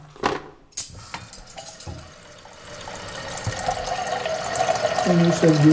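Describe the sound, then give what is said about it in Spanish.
Water runs from a tap into a small moka pot, an Italian coffee maker, for coffee: a steady splashing hiss that grows louder, with the tone rising as the vessel fills near the end. “agua para la cabeterita es italiana, El creador de esa cabeterita creo que murió hace como dos años.”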